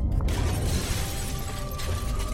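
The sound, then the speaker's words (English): An earthquake shakes a store on the East Coast: a steady low rumble with dense rattling and clattering throughout, opening with a sharp crash as tools and items are knocked loose from the shelves and tumble and knock together over about two seconds. “Several tools and items had been knocked loose from the shelves, but for the most part, there was no damage.”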